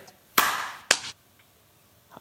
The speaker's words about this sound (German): Ich habe genau dann geklatscht, als ich deins gehört habe.